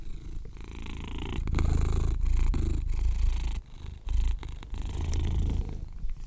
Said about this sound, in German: Im Hintergrund hörst du übrigens den Kater.